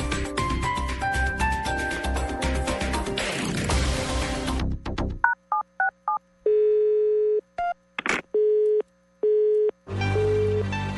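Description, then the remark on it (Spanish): Music cuts off into a quick run of keypad beeps, then a steady mid-pitched telephone busy tone pulses on and off in even bursts, loud and alone, before music returns. It is a phone call that goes unanswered, in a segment on Blue Radio. “Me emberraca cuando alguien no me contesta sistema, correo de voz.”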